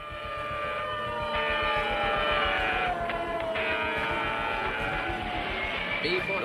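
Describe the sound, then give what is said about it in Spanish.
A loud, steady roar of jet engines with a rising whine layered on top, sustained throughout as B-47 and B-52 jet bombers power up and take off. “B-47 y B-52 despegan desde todas las bases.”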